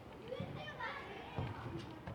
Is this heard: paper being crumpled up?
no